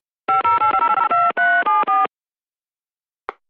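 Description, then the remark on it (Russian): A rapid run of telephone keypad tones dialing a call to Kemerovo, about a dozen short beeps in quick succession, followed by silence and a brief faint click near the end. “А теперь непосредственно в Кемерово звоним”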